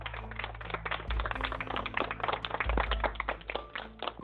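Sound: audience clapping hands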